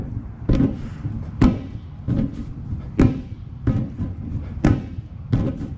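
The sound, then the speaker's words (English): David Rush of Idaho makes blind beach ball passes, setting a Guinness World Record for the most in 30 seconds. About eight hollow slapping catches come in a quick, steady rhythm over a low, continuous rumble, with no talking. “That's actually David Rush of Idaho, who's earned yet another Guinness World Record, this time for the most blind beach balls passes in 30 seconds.”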